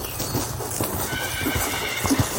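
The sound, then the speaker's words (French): Several horses gallop in their enclosure a few meters away, their hooves thudding in a quick, uneven rhythm on soft ground, with a whinny rising briefly above the steady clatter. “On entend le bruit de quelques chevaux galopants dans leur enclos, à quelques mètres d'eux.”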